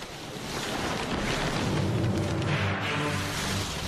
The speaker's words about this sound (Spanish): Sus vidas dependían enteramente de Worsley, mientras el océano se lanzaba con fuerza contra la tripulación y su diminuto barco.